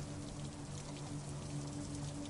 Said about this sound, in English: you you go out in the street. It's raining